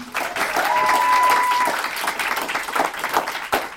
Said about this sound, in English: Uh, can we get a big round of applause for …?